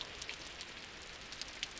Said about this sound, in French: Il fait maintenant nuit. Je suis au pied d'une falaise, à l'abri de la pluie. Cette pluie que l'on attendait depuis déjà plusieurs mois, qui enfin est là.